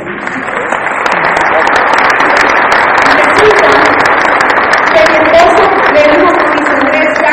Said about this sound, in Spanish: Yo creo que tú deberías darle un fuerte aplauso a la persona que te invitó.